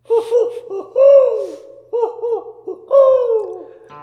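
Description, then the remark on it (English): A voice imitates an owl hooting, loudly: two rounds of quick short hoots, each ending in a long, drawn-out, falling hoo, with a brief pause between them. “Watch out. Duck. I mean, owl.”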